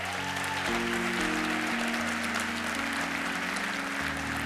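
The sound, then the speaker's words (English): A church audience applauds, giving the Lord a hand clap, in a dense, steady wash of clapping that runs the whole time, with low sustained keyboard chords shifting underneath. “Come on, give the Lord another big hand clap.”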